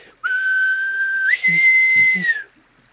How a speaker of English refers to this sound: … just whistles